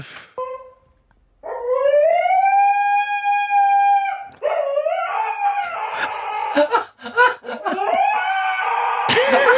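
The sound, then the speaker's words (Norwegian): A dog lying on its side at the top of the stairs, relaxing and a bit bored, lets out long, wavering howl-like moans and groans, rising and falling in pitch with a few breaks between drawn-out vocal stretches. “det du hører nå, er bare en hund som ligger og slapper av på mhm. toppen av trappa.”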